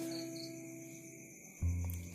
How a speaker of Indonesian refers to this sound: Ketika dia mendengarkan di dalam kesunyian ada suara jangkrik.